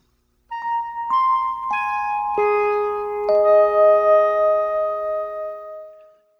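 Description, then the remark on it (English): A short synthesized musical motif from the video game Star Raiders, played at the start and end of every round, of five sustained, bright tones, each note stepping in after the last and ringing together. The final note holds and slowly fades, with no voices present. “Yeah, uh, I think they got the three tones that start and end every round of um, Star Raiders from the movie Close Encounters of the Third Kind.”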